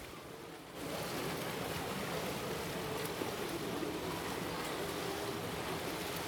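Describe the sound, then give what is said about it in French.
Waves lapping in a steady, continuous wash of water noise that swells in after a brief quieter moment and holds evenly throughout, with no voices. “Au clapotis des vagues, celui des claquettes.”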